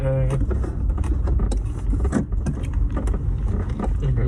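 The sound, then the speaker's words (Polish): A car driving through city traffic in Kraków: a steady, loud low engine-and-road rumble throughout, with scattered small clicks and rattles and a brief dip midway. “Mamy ciężką sytuację na drodze.”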